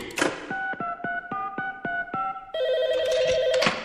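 telephone ringing

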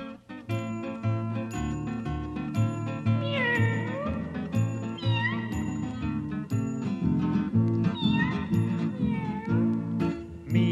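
kitten meowing

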